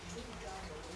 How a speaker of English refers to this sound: if, if you can hear clearly you know that it's raining outside so it's difficult trying to find a quiet place a very quiet place to record an episode it's been noisy